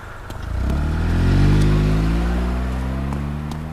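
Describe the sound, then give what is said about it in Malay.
A car engine starts up and revs as the car, driven by a man, pulls away after dropping a woman off; a steady low rumble rising in pitch with clear harmonic sweeps, loud throughout. “Siapa lelaki dalam kereta tadi tu?”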